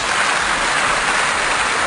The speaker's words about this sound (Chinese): 把掌声送给这些朋友啊！